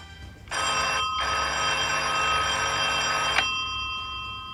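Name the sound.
telephone ringing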